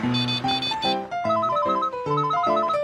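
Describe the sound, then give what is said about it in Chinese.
A mobile phone, left in a basket, rings with a bright electronic ringtone, a loud, steady melody of quick alternating notes and stepping pitches that repeats without pause, with no voices. “哎哎，电话，我的电话嘞，放哪里呀？”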